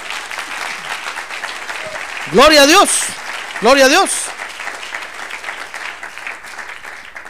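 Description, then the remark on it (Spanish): An audience applauds the Lord steadily during a sermon, a dense crowd of clapping hands, while a single voice twice rings out in loud, sung-like exclamations over the ovation. “Démosle un aplauso al Señor.”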